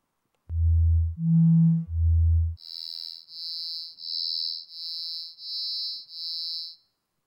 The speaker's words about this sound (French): Alors d'abord les sons purs, puis nous allons à ces sons.